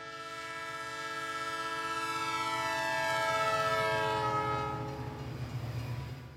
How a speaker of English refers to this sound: This train, it's a celebrity.